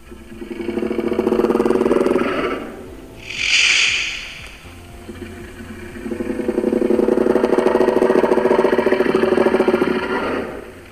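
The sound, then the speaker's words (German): A voice imitates a small predatory dinosaur growling: a long, rattling rasp, a brief sharp hiss, then a second, longer growl, fairly loud. “Und das, was ich jetzt hier vor meinem geistigen Auge sehe, das ist ein kleiner Dino, ein Raubdino. Der macht äh, auch ein Geräusch.”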